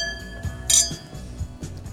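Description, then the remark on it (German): Wine glasses clink together once in a bright, ringing toast, the chime lingering briefly over a soft, low background murmur. “Oh, sehr gerne. Prost.”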